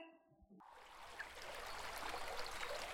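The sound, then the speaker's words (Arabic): A steady rush of a strong summer river, swollen with spring water, starts after a brief, quieter moment and continues loud and constant, a broad hiss of current with small bubbling splashes throughout, as Naqqaq jumps in and swims to the other bank. “قفز نقاق بقلب النهر سبح لتاني ضفة عادة بهالوقت النهر بتبقى المي فيه خفيفة لأن الدنيا صيف بس هالسنة شكل هالينابيع مخزنة كتير مي”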